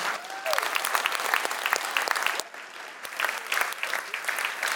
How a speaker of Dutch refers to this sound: Mag ik een groot applaus voor de presentator?